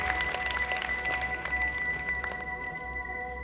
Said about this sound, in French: Molière entend les murmures de joie et les cris de soulagement de ses camarades, tandis que la cour applaudit le roi